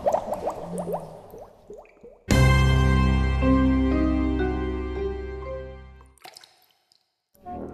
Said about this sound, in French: Ouais, enfin là, euh, il y a quand même plein de bulles à la surface.